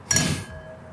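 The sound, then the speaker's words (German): Two wine glasses meet in a single bright clink in a toast, and the clear ringing tone lingers and fades for nearly a second. No voices are heard. “Ja, zum Wohl.”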